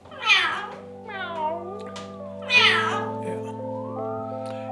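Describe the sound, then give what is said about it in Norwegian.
Sara, a pet parrot in her cage, gives two loud, cat-like meows about two seconds apart, imitating a cat, with softer squawky chatter and a steady tonal hum running underneath. “Papegøyen Sara skvaldrer og mjauer i buret sitt.”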